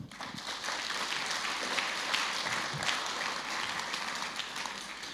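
Steady applause from an audience for three people, a dense wash of many hands clapping at once, sustained at an even level for several seconds.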